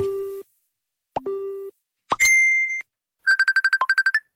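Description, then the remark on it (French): Facebook chat notification sounds with no talking: two low, hollow pops, then a brighter sustained tone, and finally a quick, loud burst of about ten rapid blips. “C'est le retour du chat euh, sur Facebook.”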